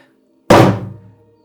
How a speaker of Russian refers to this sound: Как только вы слышите стук, раздается просто дичайший взрыв.